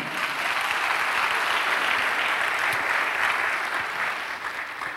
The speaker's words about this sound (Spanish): Eso, denle un aplauso a Dios si quiere.